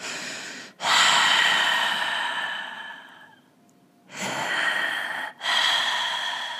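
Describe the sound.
A voice imitates heavy, raspy breathing: a long drawn breath fading out, a brief pause, then two more loud rushing breaths. No words are spoken.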